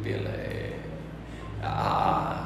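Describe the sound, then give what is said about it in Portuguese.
A boy's voice imitates a motorcycle engine with a sustained, buzzing rumble that dips briefly and then revs up louder, continuous throughout. “Ninguém nunca ensinou barulho de moto para ele.”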